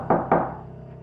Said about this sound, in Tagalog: Pero patuloy pa rin ang kaluskus at katok, Sir Jupiter.